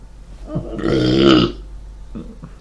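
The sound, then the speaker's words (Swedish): A single loud, drawn-out burp, deep and rumbling, lasting about half a second before trailing off, with faint low murmurs before and after it. “Excuse. Du vet, hade jag tagit sammanlagt dina rapor och mina och klippt ihop det hade det blivit två och en halv timme.”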